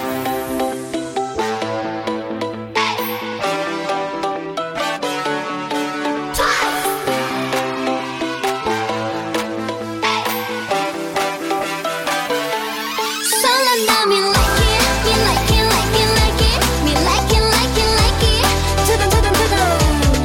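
A K-pop girl group song plays loudly with a bright, layered arrangement and steady beat, building through a rising sweep into a fuller, heavier section with deep bass.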